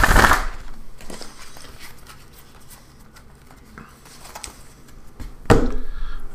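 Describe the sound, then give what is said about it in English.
Tarot cards being shuffled: a sharp papery burst opens, followed by scattered soft flicks and taps, then another crisp riffle near the end. No one speaks. “All right, here we go. Shuffling.”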